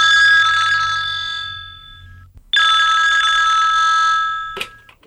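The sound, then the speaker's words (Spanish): An old landline telephone in an apartment on Maipú Street rings twice, each loud metallic bell trill lasting about two seconds and fading out, with a short silence between them and a brief click near the end. “Sonó el teléfono del departamento de la calle Maipú, Leonor atendió y escuchó.”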